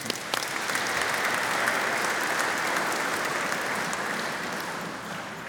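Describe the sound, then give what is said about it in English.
An audience applauds all the mothers for Mother's Day, clapping steadily in dense, sustained applause that swells quickly and holds at an even, fairly loud level for several seconds before easing slightly at the end. “So give all the mothers round of applause, you know, they love it.”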